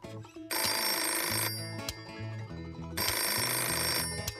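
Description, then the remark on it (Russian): A telephone bell rings in two loud bursts, each about a second long with a pause between, while a low tonal background keeps going underneath. No one speaks. “Ой, спасибо, что позвонила.”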